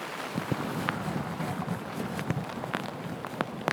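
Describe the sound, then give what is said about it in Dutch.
Steady rain patters outdoors as someone walks through it to a garden house, a dense wash of drops broken by sharp, irregular taps, with a faint breezy rumble underneath and no voices. “Maar eerst moet ik, je hoort de regen al eh, driftig tikken.”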